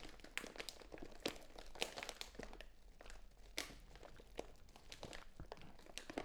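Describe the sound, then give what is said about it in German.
Footsteps crunch and rustle through dry leaves on a leaf-covered forest floor during a leisurely walk, a steady irregular walking rhythm of crinkling crackles, with no voices. “Ein gemütlicher Spaziergang durch einen Waldboden voller Laub.”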